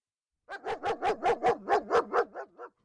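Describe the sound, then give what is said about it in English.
A two-year-old German shepherd sheriff's canine named Nika, tracking a person by scent, barks in a quick, steady string of about ten sharp barks lasting a couple of seconds, fairly loud, with no one talking. “This is the sound of a sheriff canine tracking me.”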